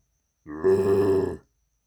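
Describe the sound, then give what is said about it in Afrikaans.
A single drawn-out growling grunt made by a human voice imitating a snowman growling, loud, lasting about a second with a rough, low buzzing tone before cutting off into silence. “Maar hierdie sneeuman gromf hom.”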